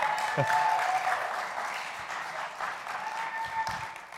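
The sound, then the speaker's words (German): Steady applause from an audience, a dense wash of many hands clapping at even loudness for several seconds, with a few faint tonal whistles or cheers rising above it. “Einen, einen kräftigen Applaus.”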